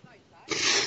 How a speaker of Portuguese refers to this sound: Chefinho, se espirrar, saúde.